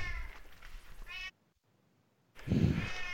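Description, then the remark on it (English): Two loud, drawn-out cat meows, the first wavering and the second stronger and more insistent, separated by a moment of near silence. “but oh my god, my cats are going bananas.”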